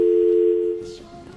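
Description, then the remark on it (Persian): A steady electronic telephone tone hums for about a second after a phone call from Australia drops, then cuts off, leaving faint line noise and a soft murmur at the end. “اینکه یه اشکال کوچولو داشتیم این رو از تلفن از دست دادیم”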